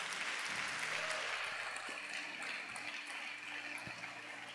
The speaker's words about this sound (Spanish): Dale un aplauso a Dios por el Dios grande que tenemos.